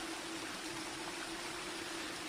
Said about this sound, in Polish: Słyszycie, jak zaczyna padać deszcz i rozbija się o dach i uderza o szyby. Krótkie, ale intensywnie zaczyna padać.